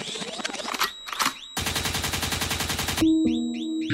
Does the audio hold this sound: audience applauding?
no